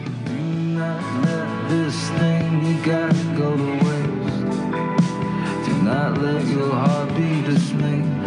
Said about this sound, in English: big, epic, … style rock and roll from a dude who completely means it.